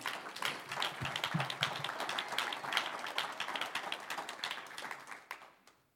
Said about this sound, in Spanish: Un aplauso al Señor.